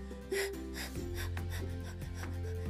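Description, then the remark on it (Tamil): A voice mimics a cow's heavy panting with a quick series of harsh, breathy huffs, about six in a steady rhythm, fairly loud over a low sustained drone. “அப்படின்னு மூச்சு வாங்குது மாடு அதுக்கு மேலே மூச்சு வாங்குது பாட்டி”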